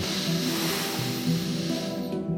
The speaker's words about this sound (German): Wir spüren unsere Körper von innen heraus und atmen einmal tief ein